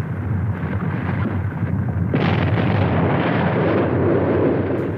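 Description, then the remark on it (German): A loud eruption of the volcano Etna in Sicily, Italy, spewing fire and ash, rumbles in a deep, continuous roar, swelling into a broader, harsher blast partway through and staying heavy to the end, with no voices. “Am Dienstag gab es auf Sizilien einen lauten Rums.”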